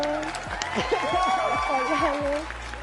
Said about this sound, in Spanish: Así que un aplauso. Un aplauso, aplausos falsos. Aplausos falsos.